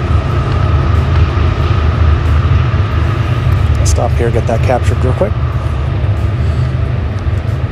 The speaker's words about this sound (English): Wow, hear that train.